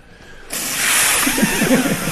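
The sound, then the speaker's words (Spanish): After a brief quiet moment, someone blows hard and steadily into a breathalyzer pipette as if inflating a balloon, a repeat test after the pipette failed: a loud, sustained breathy rush lasting nearly two seconds, with faint strained vocal tones toward the end. “me dice, sople como un globo, como si inflara un globo.”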